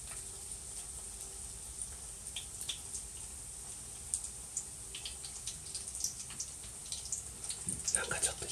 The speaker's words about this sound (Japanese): 今日はですね今からとんかつを作っていきたいと思いますでちょっとね ASMR にもチャレンジしてみようかなと思ってその油でねとんかつを揚げる音を、まあ、重点的に聞いていただけたらなと思います